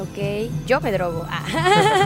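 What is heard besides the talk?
dog vocalizing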